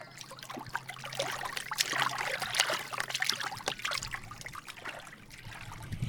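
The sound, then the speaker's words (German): Continuous water sloshing and splashing, with irregular bursts of churning and trickling as two girls jump into a river and swim across it. No voices, just the steady wet turbulence. “Ganz mutig steigen die beiden zum Fluss runter und springen in das Wasser, wenn das nur gut geht.”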